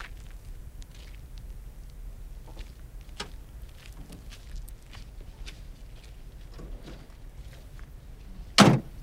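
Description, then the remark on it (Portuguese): A truck door slams shut once, loud, near the end, as men get into the truck, after a stretch of low background rumble with scattered faint clicks and rustles. No one speaks. “Entram no caminhão. O homem usa chapéu, camisa e calça. Fecha a porta e coloca a espingarda no ombro.”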